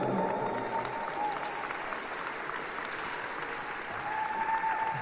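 A crowd applauds steadily for about five seconds, a dense, even patter of many hands clapping with no pause, holding at a constant loudness throughout.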